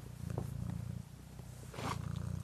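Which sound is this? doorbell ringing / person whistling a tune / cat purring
cat purring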